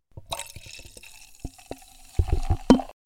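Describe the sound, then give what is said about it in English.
Liquid splashes and glugs as a drink is poured into a glass, with a run of small drips and plops that grow louder toward a final splash before stopping. “We're gonna pour a glass right now.”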